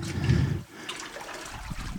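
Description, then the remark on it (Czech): Water splashing and sloshing, with a loud churning surge in the first moment before settling into softer trickling movement, as people wade through water at the lowest part of a mine shaft. “jak asi slyšíte, se dostali na nejspodnější část eh, šachty, do míst, kde už se brodíme vodou”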